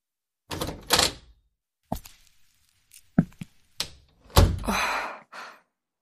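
A front door being opened as someone comes home and enters: a few thumps and latch clicks, then a longer rattling sweep as it swings, with a final soft knock. No one speaks.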